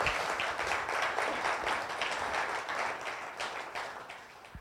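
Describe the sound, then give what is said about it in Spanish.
A crowd applauds steadily, a dense wash of many hands clapping at a fairly even, moderate level that tapers slightly toward the end, with no voices over it. “Yo, creí que ese aplauso iba a ser un poquito más apasionado.”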